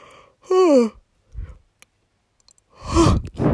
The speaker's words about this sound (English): Sorry for the yawn. I also just woke up.